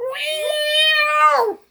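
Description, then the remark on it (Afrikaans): A person imitates a cat's meow with one drawn-out, nasal vocal cry that rises, holds steady for over a second, then bends down and stops. It is fairly loud. “Ja, Die skape laai die katte in daai ketties.”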